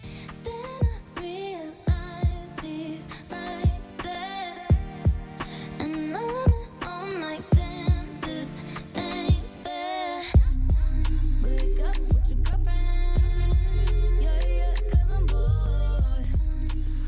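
A pop song plays with a melodic vocal over sparse, punchy beats, then about two-thirds through a heavy bass and fuller beat kick in, making the track louder and denser.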